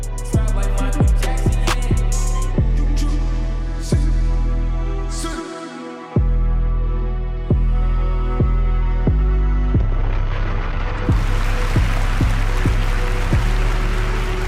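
A hip-hop instrumental beat plays loudly with booming, pulsing bass hits in a steady rhythm; a bright, hissy hi-hat layer kicks in toward the end. No voices.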